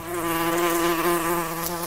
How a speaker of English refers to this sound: So they use their upper and lower petals as guides, like a helicopter landing pad, forcing the bee to set down in a very specific spot and bump up against the pollen.